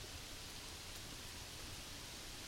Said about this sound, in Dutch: Wow, dat is een hard geluid. Het klinkt als hele harde regen.